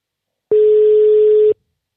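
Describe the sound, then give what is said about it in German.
A single steady telephone ringback tone during an outgoing phone call, one clear electronic beep about a second long, loud, with silence before and after and no voices. “Hörst du es klingeln? Ja, ich höre es auf jeden Fall klingeln.”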